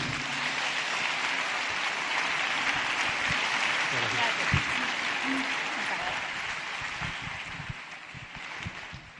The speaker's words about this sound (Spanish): Así es que no me voy a extender más y os pido un fuerte aplauso para recibir a